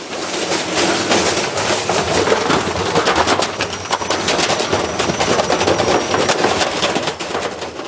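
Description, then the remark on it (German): A running washing machine with a heavy brick tumbling inside, producing loud, rapid, irregular knocks and thuds over a constant rumbling churn, continuous throughout. “Im Fall, ich habe das Geräusch von einem YouTube-Video genommen, wo jemand nicht Turnschuhe, sondern einen Bachstein in die Waschmaschine hat gelegt.”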